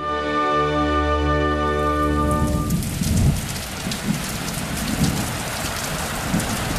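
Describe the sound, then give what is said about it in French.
A sustained humming tone fades out after a couple of seconds, giving way to steady, dense rainfall hissing and pattering, with no voices. “Le 19 avril 1906 est une journée pluvieuse.”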